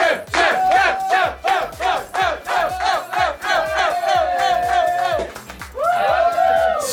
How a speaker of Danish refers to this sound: så råber de jo chef, kan jeg godt høre nu.